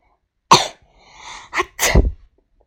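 A school principal allergic to pollen sneezes after a bouquet of flowers is held to his nose: a sharp, explosive burst, a soft breathy pause, then a quick short sneeze followed by a louder, drawn-out one, with no talking.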